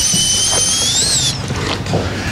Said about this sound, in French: Et comme euh, le, il n'arrivait pas à finir les dernières racines, il l'a fait avec une fraise de dentiste. Absolument. Et ça, c'est horrible comme son. Écoutez chez vous au casque.